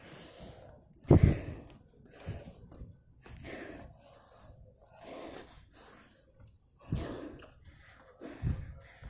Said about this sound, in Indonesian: I try to breath as best as I can